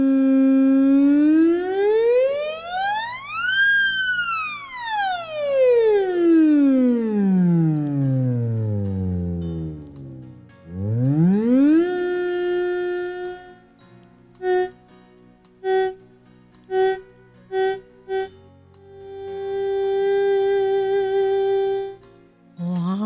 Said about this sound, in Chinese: 除了特门琴之外呢，还跟吉他来做合奏哦。